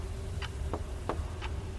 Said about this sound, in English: As I listened in the absolute silence, hearing only the constant drone of the wind outside and the tick of the grandfather clock.